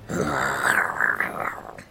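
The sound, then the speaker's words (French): A bearded man, a pirate, lets out a single drawn-out grunt as his first reaction after a deep breath, low and gravelly, lasting nearly two seconds, with no other talking around it. “un grognement. Les enfants ne comprennent pas.”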